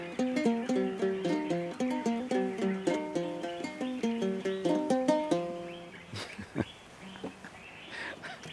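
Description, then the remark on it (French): A griot plays nursery rhymes on a calabash instrument with goat skin and bamboo: a brisk, repeating melody of bright plucked notes for about six seconds, then stops, leaving a few faint knocks and handling noises. “Qu'est-ce qu'on vient d'écouter C'est à Calabas, avec la peau de chèvre, euh, avec le bambou.”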